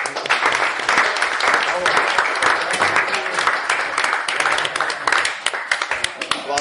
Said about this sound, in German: deinen Beifall.